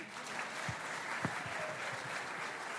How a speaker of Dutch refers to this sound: Ja, mag ik nog even klappen? Geen probleem.